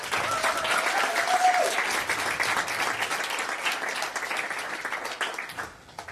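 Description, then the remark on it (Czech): A room full of people applauds the Czechs steadily for about six seconds, dense overlapping claps at an even level that thin out slightly at the end; a brief whistle-like tone rings out early on. “A některý tady opravdu, opravdu spali někdy některou noc, jenom i hodinu, takže opravdu moc velká pochvala, jsem moc vděčný a určitě, jestli bychom mohli ještě i Čechům zatleskat, tak budu moc rád.”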